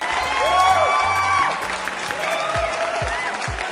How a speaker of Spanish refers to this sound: Un aplauso para él.